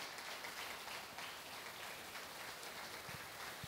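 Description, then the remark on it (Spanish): A church audience applauds for the Lord, a dense, steady wash of many hands clapping together for several seconds, heard at a soft level with no voices on top. “Dale el aplauso al Señor.”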